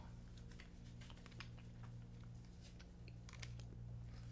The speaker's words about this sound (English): So I'm just shuffling my cards, doing my thing. Ooh, one popped out!